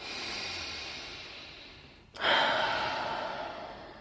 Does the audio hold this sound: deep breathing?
yes